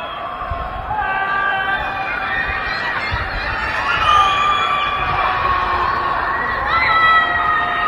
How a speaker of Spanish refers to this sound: ¿Qué, son esos gritos?